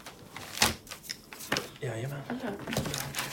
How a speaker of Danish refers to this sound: Han finder svaret frem i sin taske.